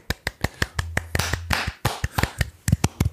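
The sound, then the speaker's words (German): A small burst of hand clapping applauding all people who work in essential jobs, sharp irregular claps from one or two people over about three seconds, with a low steady hum underneath and no talking. “Kurz noch Applaus für alle Menschen, die in systemrelevanten Berufen arbeiten, bitte.”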